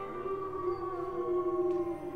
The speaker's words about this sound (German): Und Nacht für Nacht aus Hunderten von Kehlen hört man ihr markerschütterndes Geheul.